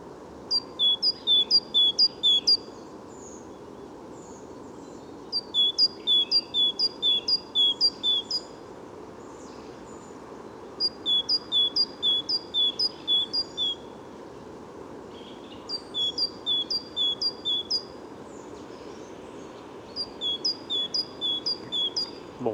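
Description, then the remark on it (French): A bird sings in repeated bursts of sharp, high two-note phrases, one note strongly accented, each burst lasting a couple of seconds, over a steady low rumbling background noise. “Deux notes euh, perçantes, dont une très appuyée”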